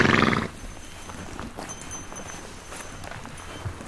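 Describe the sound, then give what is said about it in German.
Small bells hung around the necks of grazing horses in Ethiopia jingle irregularly as the horses move about outdoors, with soft hoof sounds and scattered tinkling over a steady open-air background, after a brief louder rustle at the start. No one speaks. “Und genau das Gleiche macht man in Äthiopien auch, allerdings mit den Pferden.”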